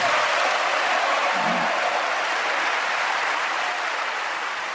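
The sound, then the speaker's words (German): Sustained applause from a large audience after a speech calling for a cap on refugee immigration, while Merkel stands and listens. A steady dense wash of clapping holds at an even loudness throughout, without any pause or talking. “Genau, also du erinnerst dich, danach kam ein wirklich langer, langer Applaus.”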